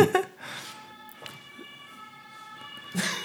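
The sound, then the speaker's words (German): An ambulance siren wails steadily as it passes by, its sustained tones holding through the moment before fading, with brief bits of voice and rustling at the start and end. “Gut, der Krankenwagen schon vorbei.”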